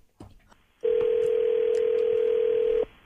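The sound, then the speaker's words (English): A phone call ringing out: after a moment of faint line noise, one steady, two-second ringback tone sounds through a thin telephone line, then cuts off. No one speaks. “You're going to call them? Yep.”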